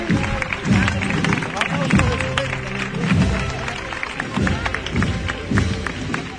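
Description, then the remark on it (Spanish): A street crowd of neighbours and members of the public applauds and cheers in a steady, dense wash of clapping and voices as the queen of El Higueral is carried through its streets, holding level for several seconds while a person talks over the ovation. “Con la ovación de todos los vecinos, vecinas, público en general que no quiere perderse a la reina del Higueral por sus calles.”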